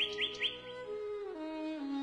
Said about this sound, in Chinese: 聆听乐曲的妙音，鸟儿的歌唱。